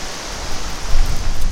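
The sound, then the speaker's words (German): Water dripping and trickling from fog-catching nets near the Atlantic coast as clouds pass through them, without any rain, filling the collection gutters; heard as a steady, dense hiss with a soft low rumble that swells slightly toward the end; no one speaks. “Und dann Wasser, Tropfen für Tropfen, ganz ohne Regen.”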